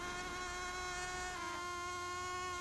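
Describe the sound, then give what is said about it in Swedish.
A steady, high-pitched mosquito whine drones continuously, fairly loud, its thin harmonic tone wavering slightly in pitch, with no voices present. “Men de facto är den mygga som sprider malaria ljudlös. Så det här ljudet varnar de facto inte den utsatta.”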